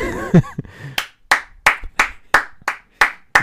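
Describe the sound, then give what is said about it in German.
About eight sharp hand claps in a steady, moderately quick rhythm, fairly loud, following a brief bit of voice at the start: hosts clapping their hands as applause for themselves. “Wir sind arme Schweine, wir müssen es noch selber klatschen.”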